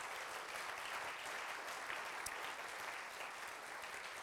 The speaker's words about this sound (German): Lass uns Gott dafür einen Applaus geben.